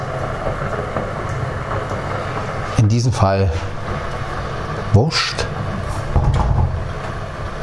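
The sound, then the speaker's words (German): A coffee machine hums and whirs steadily throughout as it brews coffee, a constant low mechanical drone with a broad hiss on top, while a man speaks briefly over it a few times. “Ist egal, ob man nun den für eine Tasse zweimal drückt oder den für zwei Tassen einmal”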